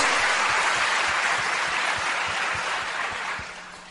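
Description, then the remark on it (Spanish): Sustained audience applause for the invited guests, a dense, steady wash of many hands clapping at full strength, easing off slightly toward the end, with no voices over it. “Por favor, un fuerte aplauso para los invitados.”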